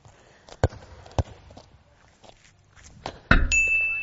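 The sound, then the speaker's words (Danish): A couple of soft thuds, then on the last shot of a ten-shot attempt a ball clips and smacks hard into a metal goal crossbar with a loud clang that keeps ringing in a sustained metallic tone. “giver overliggeren tæsk!”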